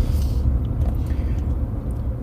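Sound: car interior engine rumble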